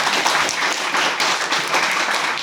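A burst of steady group clapping, dense and continuous, with many overlapping hand claps forming a bright, even wash of applause that holds at a fairly loud level throughout.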